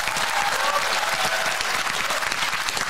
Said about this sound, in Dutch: Eh, we gaan naar de man die eh, van Chateau Meiland wereldberoemd is. Geef een groot applaus, Martin Meiland.